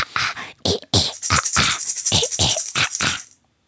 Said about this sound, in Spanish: es que aprovechemos las maracas que nos dio tu mami. Cada vez que cambiemos de segmento, hagamos esto desde hoy. Suena a culebra. Suena a culebra, ok.